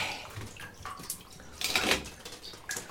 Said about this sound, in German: Also der hat jetzt den Besen gespalten. Also der Besen bringt immer das Wasser und es überschwemmt dann alles, weil das Bad schon voll mhm. ist. Ne, und äh, er spaltet dann den Besen mit dem Beil.